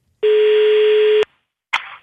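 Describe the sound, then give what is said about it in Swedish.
A single steady telephone dialing tone sounds for about a second before a call, loud and clean, followed by a brief pause and two short bursts of rustling noise. “Jaha, då ringer vi.”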